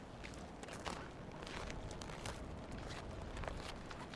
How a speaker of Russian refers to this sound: Вот сейчас все бросила и пошла в лес рядом с домом гулять. Здесь очень здорово. Здесь солнышко так светит, и снег лежит, и, может, слышишь, как хрустит.